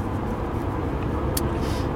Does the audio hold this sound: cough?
no